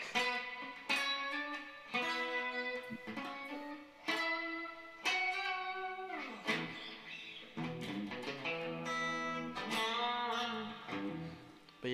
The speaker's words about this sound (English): Um, so I'm gonna pull this toggle so you can hear the strat, so you can hear the single coil. And it's kind of like got this quack.